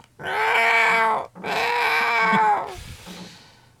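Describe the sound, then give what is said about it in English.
An old cat lets out two long, drawn-out meows, one right after the other with a brief pause, then trails off into quieter rustling. “It's doing pretty good for a hundred year old cat.”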